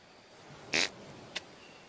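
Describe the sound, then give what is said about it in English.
A short, sputtering fart noise made by mouth bursts out once, fairly loud, then a brief quieter blip follows a half second later. No talking. “he's in bed, and he pulls back the sheet, and somebody else's fart comes up, and he screams.”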